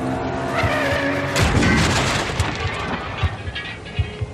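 A car collision as an old BMW, the third car in the accident, crashes into the front side of another car: tires screech and a loud, crunching impact hits, then scattered bangs and rattling debris over a continuous roar of noise.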